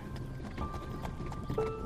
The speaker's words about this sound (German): Also öffnest du langsam die Augen und siehst eine altertümliche Pferdekutsche auf dich zukommen. Sie wird von einem großen schwarzen Pferd gezogen.